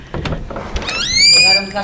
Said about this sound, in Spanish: Bueno, voy a abrir la puerta, a ver si podéis escuchar.